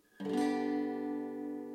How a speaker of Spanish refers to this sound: Y el dedo chiquitito, el dedo número 4, que estaba en la cuarta cuerda, en el tercer espacio, pasa al quinto espacio de la cuarta cuerda. ¿Ok? Y todo el acorde suena así.